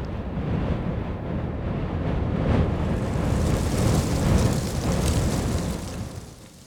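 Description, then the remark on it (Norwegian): Steady rain hisses down without a break, a dense, even wash of noise with scattered brighter patters and a low, rumbling undertone, fading slightly at the end. No voices. “Og nå du regna det.”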